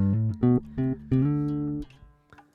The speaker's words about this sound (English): I actually have a bass guitar plugged in,